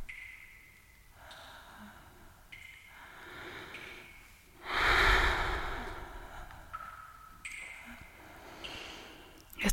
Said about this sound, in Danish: trækker vejret dybt og mærker efter.